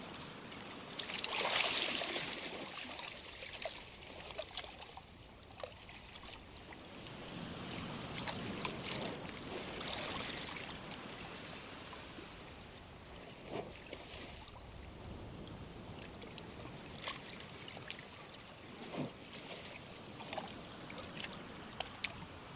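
Gentle sea waves lap and splash against a shore in soft, uneven washes, with occasional brighter slaps of water and a faint breeze behind them. No voices are heard.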